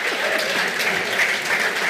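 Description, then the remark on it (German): Steady audience applause fills the space, dense and continuous clapping from many hands at a fairly loud level, with no voices standing out. “Ey, danke Danke Applaus für die beiden Klappspannen.”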